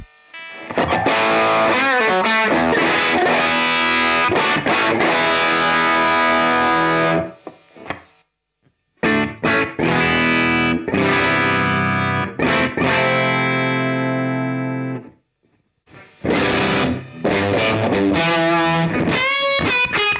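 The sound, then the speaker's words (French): Heavily distorted electric guitar playing crunchy, sustained riffs and chords through a Universal Audio UAFX Ruby 63 pedal emulating a Vox AC30 Top Boost amp, loud, with brief gaps of silence between phrases and no talking. “Ruby 63 UAFX Universal Audio : mettez un VOX-AC30 Top Boost dans votre pédalier”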